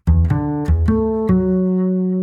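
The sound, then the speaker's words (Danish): A short sound-logo melody, built from two combined intervals, played on a double bass: five plucked low notes in quick succession, the last one ringing out and slowly fading. Full and clear, with no voices. “De to intervaller blev kombineret til en lille melodi, og for at sende et signal, der var både cool og troværdigt, blev det besluttet at bruge en kontrabas til at spille melodien i lydlogoet.”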